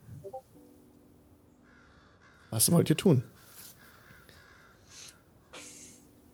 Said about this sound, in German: Ihr hört die, die Krähen in den, in den Ästen.